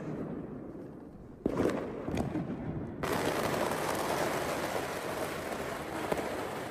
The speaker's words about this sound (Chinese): 我们家小区呢是可以在小区的门口，呃，燃放这个烟花爆竹什么的，所以就是，呃。 所以这个门口呢，呃，就他们都在这个地方放，然后小新就非常的惊恐。